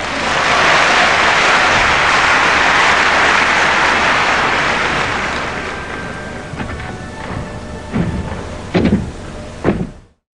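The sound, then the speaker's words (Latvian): A train's steady roaring hiss fills the first half, then fades as a thin whine appears, ending in a few heavy clunks and thuds like doors or couplings. No one speaks. “Tad bija vilciens vilts.”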